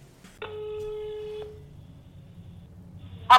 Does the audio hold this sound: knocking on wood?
no